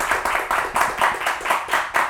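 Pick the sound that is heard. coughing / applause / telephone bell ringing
applause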